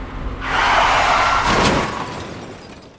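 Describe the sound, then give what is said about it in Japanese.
A car on studless winter tires skids with a long, loud screech as the steering suddenly goes, then a sharp crash with shattering debris lands near the end, wrecking the car into scrap, before the noise fades out. Nobody speaks. “あちゃーぶつけちゃったこれじゃあもう車じゃなくてただの鉄くずだな”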